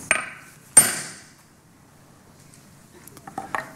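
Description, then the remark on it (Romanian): A hammer drives a spike into a log at a Sunday morning gathering: two sharp, ringing blows early on, then a few lighter, quicker taps near the end, with no talking. “a pregătit un butuc și un piron și ciocane.”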